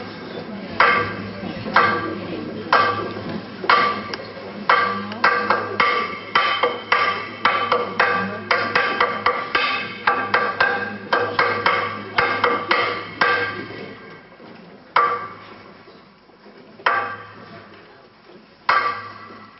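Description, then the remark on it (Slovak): Loud, rhythmic knocking calling miners to work at the mine in the morning, hard sharp strikes repeating in a quick steady pattern for about fifteen seconds, then slowing to a few widely spaced knocks, over a low steady hum. “ale u tých baníkov to bolo, že ráno pomaly klepal a keď bolo už 5, pred 5 hodinou o na 5, tak už rýchlejšie klopal, aby už bežali do tej bani, lebo už je neskoro.”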